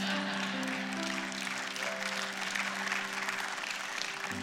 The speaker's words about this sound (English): That was the weakest hand clap of my entire message. And it was entirely appropriate. I get it, all right?